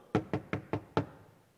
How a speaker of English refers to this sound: When the other five returned, they knocked on the door,